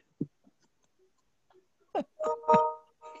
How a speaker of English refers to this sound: yeah, something like a movie or something going on TV. Okay. Or her husband having a phone conversation.